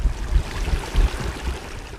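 Water trickles and burbles steadily over peat in a fen in the Platzertal valley, where the peat is constantly overflowed by water, a continuous wash of flow with soft low gurgles rising and falling, and no voices.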